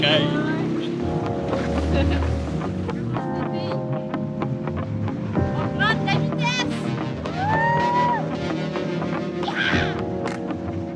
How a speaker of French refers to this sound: On a la face et les doigts gelés, mais vraiment, ce tour de bateau-là en a valu la peine.